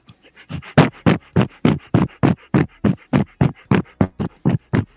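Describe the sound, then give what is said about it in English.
A person pants quickly and rhythmically like a dog as a breathing exercise: about eighteen short, breathy huffs in an even, steady pulse, each one sharp and fairly loud, with no talking. “try panting like a dog so open your mouth stick your tongue all the way out as far out as it can go and pan, and, and start panting like a dog so that's like”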